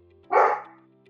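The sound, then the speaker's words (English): A person's pet dog lets out a single loud, sharp bark, a short burst that fades quickly over a faint steady background hum. “Oh, sorry, that's my dog.”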